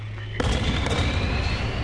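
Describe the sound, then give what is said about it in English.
Two sharp tranquilizer pistol shots fire in quick succession, loud, one into each of two men in a forest, each cracking over a dense, rumbling wash of noise that keeps going after them. No one speaks. “Pistol bounced twice in my hand as I rapidly fired around into each of them to the sounds of the pursuit pack breaking to a halt around us.”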